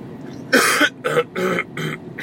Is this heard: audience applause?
no